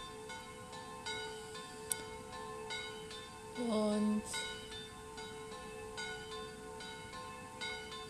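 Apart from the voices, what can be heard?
church bells ringing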